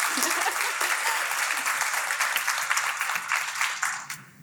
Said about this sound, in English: I think we can clap for Peggy.